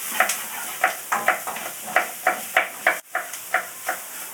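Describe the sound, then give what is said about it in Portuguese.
Corn sizzles in hot oil in a pan, a steady hiss broken by a regular run of sharp scraping, crackling bursts roughly every half second, with no voices. “E pelo que eu tô pelo até que eu tô vendo aqui o, o óleo que tinha, né? Que saiu todinho do coisa já só com milho, né?”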